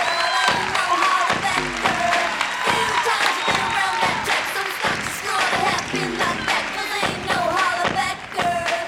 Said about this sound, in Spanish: ¡Bravo! Se pusieron de pie, gente parada, aplaudiéndola